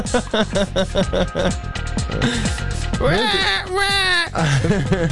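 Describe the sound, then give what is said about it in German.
A person's voice mimics a baby's crying with wavering, rising-and-falling wails and choppy sobbing bursts, loud, continuing for several seconds in one long stretch. “Wenn man immer wie so ein Baby schreit, dann wird es immer noch schlimmer, oder?”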